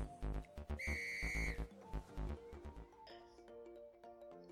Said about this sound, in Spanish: Pon el intro y arrancamos con el episodio.